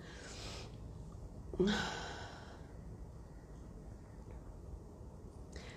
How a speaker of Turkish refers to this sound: Bu esnemeler olabilir, normal.